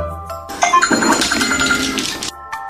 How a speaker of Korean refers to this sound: 벨소리가 울리자 흔들어 알려줍니다.